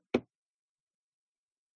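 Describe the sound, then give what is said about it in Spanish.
A single sharp, fairly loud knock on a door as someone knocks again, followed by silence. “Vuelven a tocar.”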